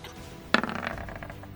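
A twenty-sided die is rolled for an attack roll in a game, striking a hard surface with a sharp first clack and then a quick run of fading rattles and tumbles before settling. No one speaks.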